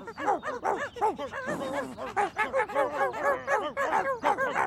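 A dog barks and yips in a rapid, nonstop string of sharp, high-pitched calls, loud, filling the whole stretch without any talking, in a piece from the TV show 31 Minutos.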